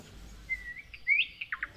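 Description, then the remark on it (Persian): Several birds chirp at their nest in quick, high-pitched bursts: a couple of thin rising whistles followed by short, sharp tweets, fairly quiet over a soft low background hum, with no voices. “آها لونهاش چه سر و صدایی هم میکنن حتما شونه خب مرغای زیبا”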